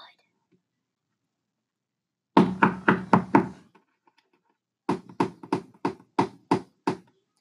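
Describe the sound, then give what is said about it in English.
Two quick bursts of hard knocks on oak wood, five in the first run and six in the second, each sharp with a short resonant ring, separated by a brief pause. “We have Oakwood.”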